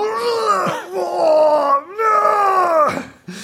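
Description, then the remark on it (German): A man's voice imitates someone groaning and straining in a campsite toilet cubicle: two long, loud, tense drawn-out groans, pitch wavering and sliding, with a brief gasp between and a third starting at the end. “Also dieser, dieser, dieser eine, der in seiner Kabine immer so am Sterben ist”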